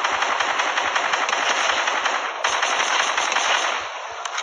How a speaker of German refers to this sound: Wow, ihr hört ja, wie die Kinder gerade schießen.